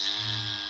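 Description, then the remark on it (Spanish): A voice imitates a strange buzzing heard in the ears, like the steady electrical buzz of a faulty guitar amplifier cable, producing one sustained, harsh, even-toned drone for well under a second, moderately loud. “Como cuando un cable de amplificador y guitarra está mal, que suena”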